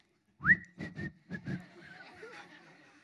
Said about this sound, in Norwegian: Men allikevel, når jeg skal gå forbi han, så stirrer jeg han i øynene, og så begynner jeg å plystre.